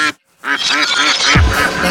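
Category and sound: bird, duck quacking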